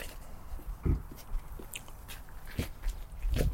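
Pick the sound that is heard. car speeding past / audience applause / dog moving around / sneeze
dog moving around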